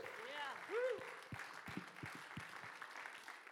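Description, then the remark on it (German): A standing audience applauds steadily for a few seconds to welcome a pastor, a dense wash of clapping with some sharper individual claps standing out, while a voice briefly calls out over it near the start. “mit einem riesen 21 Applaus zu begrüßen bei uns”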